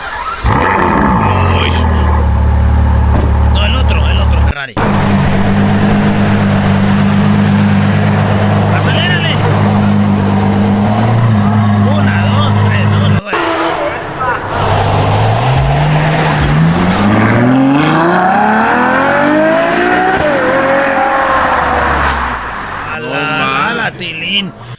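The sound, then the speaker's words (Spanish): A loud sports car engine drones steadily, then revs repeatedly with rising, sweeping pitch, the roar climbing and falling over about twenty seconds while voices talk over it. “A ver, sonido de Ferrari, güey, por favor.”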